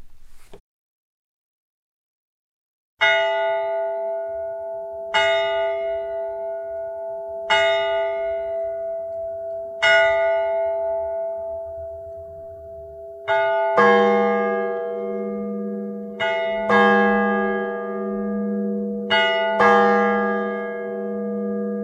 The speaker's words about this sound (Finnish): Kohta on puolipäivä. Turun tuomiokirkon kello odottaa jo lyödäkseen.